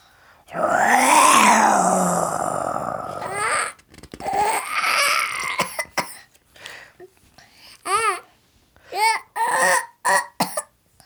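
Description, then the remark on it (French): A person gives one long, loud, rising-and-falling growl imitating a lion's roar, voicing the story character Moustache roaring like a lion, lasting about three seconds, followed by a series of short breathy vocal bursts like giggles. “Maintenant, Moustache se sent un vrai lion. Il rugit.”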